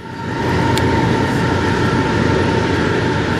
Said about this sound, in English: Show me some love, train running by.